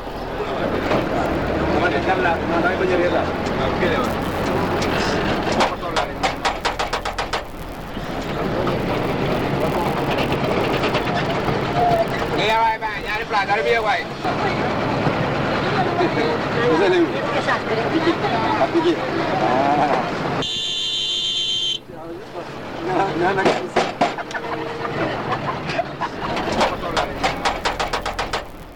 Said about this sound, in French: Ce bruit, c'est celui d'une pièce de 100 francs CFA, celle que l'apprenti accroché à l'arrière du véhicule cogne sur la carrosserie pour signaler au chauffeur qu'il doit s'arrêter ou qu'il peut repartir.